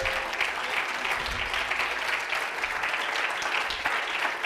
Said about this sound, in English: Oh, come on, clap your hands unto the Lord.